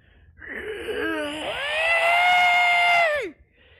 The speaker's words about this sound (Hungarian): Majd amikor megáll a mozgása, hirtelen azt halljátok, ahogy egyfajta túlvilági sikoljal